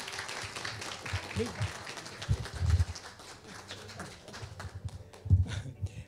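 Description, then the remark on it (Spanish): A crowd applauds steadily for several seconds, a dense wash of clapping with scattered voices and calls mixed in, swelling briefly near the end. “Ah, un aplauso”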